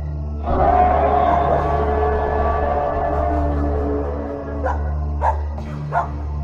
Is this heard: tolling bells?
no